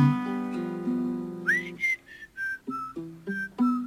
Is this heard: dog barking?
no